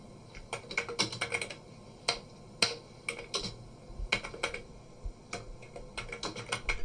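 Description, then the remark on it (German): Rapid clicking of computer keys in irregular bursts as someone types text into a speech synthesizer, with brief pauses between flurries of keystrokes, fairly crisp, no voices present. “Er tippt da einfach ein bisschen Text rein und sobald er die Enter-Taste drückt”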